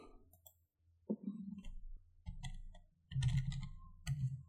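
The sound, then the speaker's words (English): A pair of twenty-sided dice clatter and tumble across a hard surface in several quick bursts of clicking, rattling hits, fairly loud, with no talking. “All right, I've got my two d20s. I'm to roll them.”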